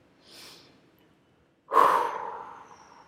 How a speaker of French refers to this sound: Et puis à l'expire, et vous pouvez expirer en faisant du bruit pour entendre le fait que vous donniez.